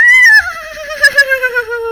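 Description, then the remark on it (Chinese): Three people imitate a horse's neigh together to call the horse Chaofeng: a loud, high whinny sliding downward in pitch, ending in a rapid series of shaky, pulsing bursts over about two seconds. “于是，向阳光三人一起学马叫。”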